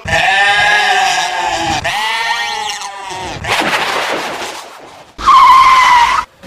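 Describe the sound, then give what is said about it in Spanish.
Loud, shrill braking screeches from tires skidding, coming in several long bursts with wavering, bending pitch and short breaks between them, with no talking. “frenó automáticamente.”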